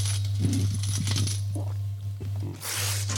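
Coins clink and jingle in a quick series of metallic rattles over a steady low hum, ending with a bright burst like a cash register drawer ringing open, a sound used in a stage piece for the character Scrooge. No one speaks.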